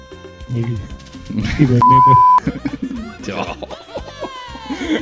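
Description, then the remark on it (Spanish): A single steady censor bleep, loud and about half a second long, covers a swear word mid-conversation while several people talk and laugh around it. “Ponle pito esa weá, ponle pito, por Puta favor.”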